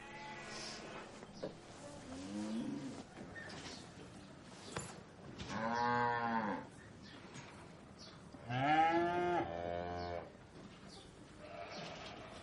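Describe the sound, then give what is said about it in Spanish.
Cattle low several times, with two long, full moos standing out over a steady background of farm animal calls and shuffling, moderately loud. “En el exterior, él pone las manos sobre el lomo de una vaca.”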